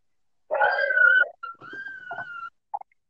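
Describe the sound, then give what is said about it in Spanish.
A puppy that someone dropped off with the speaker whimpers at home in high, thin whines: one long wavering cry, then a second drawn-out whine after a brief break, ending with a short yelp-like squeak. Clear, no talking. “entonces no estén chingando si escuchan al de los camotes pasar o al del o al del viejo, o a los niños llorando, o, en mi caso a, al, perrito que me vinieron a dejar, entonces.”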